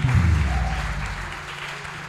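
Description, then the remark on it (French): A crowd claps steadily in a dense wash of applause, acclaiming the name of the Lord for the life of His servant, with voiced cheers and shouts rising loudly at the start before settling into continuous clapping. “sans plus tarder, on va acclamer le nom du Seigneur pour la vie de son serviteur,”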